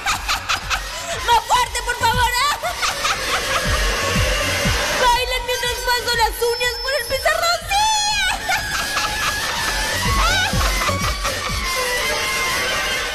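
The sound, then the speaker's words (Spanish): A fork scraping across the bottom of a tin plate at a dance music festival in harsh, wavering metallic squeals, coming in repeated bursts over a steady noisy background with voices crying out. “¡Bailen mientras raspo este tenedor por el fondo de un plato de lata!”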